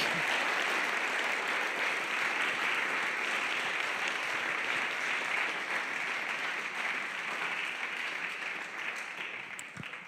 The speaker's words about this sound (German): Wenn ihr nach vorne kommt, vielleicht könnt ihr nochmal einen Applaus geben, dann empfangen wir jetzt von euch.